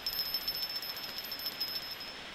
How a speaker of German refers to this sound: Da klingelt es auf einmal an der Klingelleitung.